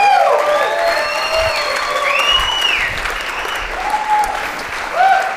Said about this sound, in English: Would you put your hands together